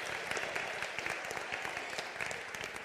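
A crowd applauds steadily, dense overlapping claps forming a continuous, fairly loud wash of sound that holds even throughout without fading.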